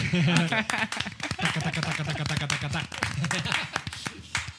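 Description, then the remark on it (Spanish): Sharp flamenco-style hand claps welcoming a guest ring out in a quick, uneven rhythm, mixed with lively voices and laughter that continue throughout, the clapping moderately loud. “Pero aplaudan como si fuera flamenco”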